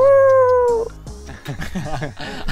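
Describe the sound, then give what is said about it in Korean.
A person imitates a puppy's howl with a sustained, wavering high tone for under a second, followed by lively talking and laughter. “제노 멍멍이! 아우!”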